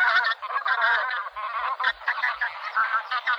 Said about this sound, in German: Der Vogel der Woche, die Saatgans.